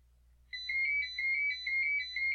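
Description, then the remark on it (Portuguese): A telephone ringtone starts after a brief silence and keeps ringing in a steady, repeating electronic pattern of bright tones. It's clear, with only a low hum underneath and no voices. “Cara, essa porra desse telefone nunca toca. Por que foi tocar agora?”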